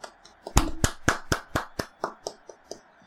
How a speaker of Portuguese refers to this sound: Vamos dar uma salva de palmas pro Otto então, porque né? Vamos, vamos.